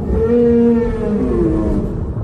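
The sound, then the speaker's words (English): A long, low whale call moans steadily for about two seconds, its pitch bending gently, over a deep underwater rumble with no voices. “That's whales.”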